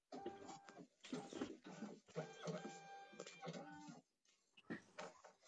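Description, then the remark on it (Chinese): A printer, its power just switched on, runs in a series of whirring mechanical bursts, with steady whines that step up and down in pitch between strokes, and a short gap before a final run. “搿啥声音啊？哪能像像打印机个声音一样？”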